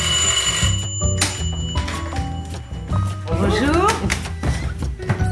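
A doorbell rings with a bright, sustained metallic chime, close and fairly loud, over a dense, cluttered background of thuds and mixed noise.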